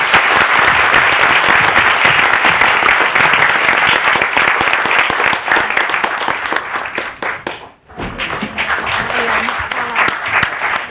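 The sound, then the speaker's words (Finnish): Sustained audience applause thanking two people, loud and dense with many overlapping hand claps, briefly dipping to near silence before resuming more thinly. “Annetaan vielä vaikea aplodit.”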